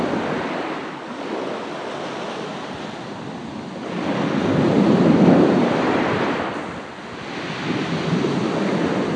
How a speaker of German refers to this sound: Das Rauschen der Wellen, die im gleichtönenden Rhythmus an den Strand plätschern